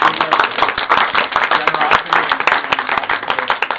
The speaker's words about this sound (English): So um, why don't we all, um, you know, have a round of applause to thank generosity